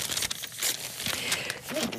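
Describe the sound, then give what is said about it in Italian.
Paper crackles and crinkles as pages of La Stampa newspaper are shuffled and turned to find the front page, a continuous rustling with brief bursts of louder crumpling over about two seconds, no voices. “Adesso io devo ritrovare la prima pagina della stampa.”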